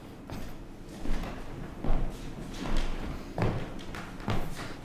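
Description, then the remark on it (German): Someone comes in through a door: a string of dull thuds and bumps, about six, spaced roughly a second apart, moderately loud, with no voices. “So, hier kommt, glaube ich, jemand zur Tür hinein.”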